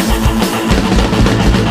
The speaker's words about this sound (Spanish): El bajo suena así.